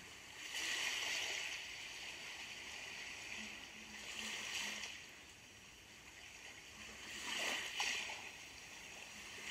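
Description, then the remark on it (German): Gentle seawater laps and swishes under a pier in three soft, rhythmic surges, rising and fading against a steady watery hiss. It is fairly quiet, and no one speaks. “Unter dem Steg rauscht das Meer.”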